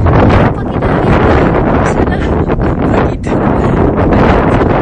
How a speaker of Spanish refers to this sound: El viento.